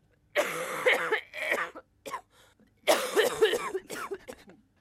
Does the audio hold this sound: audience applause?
no